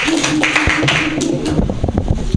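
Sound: audience clapping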